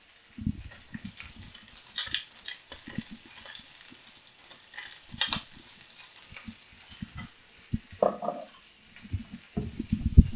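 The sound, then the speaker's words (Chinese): Food sizzles steadily in a hot pan as it is pan-fried golden brown on both sides with a little garlic and salt added, a constant hiss with scattered crackles and pops, punctuated by low knocks and clatters of a utensil stirring. No one speaks. “啊，两边让它煎得焦黄，其实大部大致上我们就完成了这个煎的部分。”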